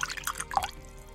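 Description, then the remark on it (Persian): Another glass of whisky poured into a glass: a brief run of liquid splashes and bright glugging tones, strongest in the middle, then trailing off. Quiet, with no voices. “اون ویسکی رو سر کشیدم و یه لیوان دیگه هم برای خودم ریختم”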